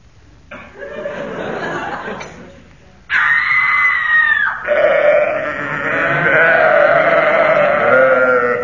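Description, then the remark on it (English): A sheep bleats in a wavering, nasal cry, then a woman lets out a loud, high, sustained scream that carries on in long shrieks mixed with more bleating until the end. “That was a Vestal Virgin tripping over a sacrificial sheep, yeah.”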